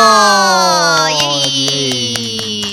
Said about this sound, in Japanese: 早速始まりましたおおおおいつもより一つか二つ拍手の音も多いですね、ねえと言いますのももう12月の末頃でございまして、うん、あの我々今忘年会をしているんですよね